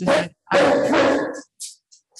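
A dog barks close by, two sharp loud barks followed by a few short, fainter yips trailing off, with no one talking.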